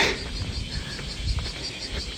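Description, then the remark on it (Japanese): Cicadas drone in a steady, continuous high-pitched buzz outdoors on a hot Saturday summer morning walk in Kyoto, August 19, moderately loud and unbroken throughout, with a low rumble of background noise beneath. “セミセミですよねこれ”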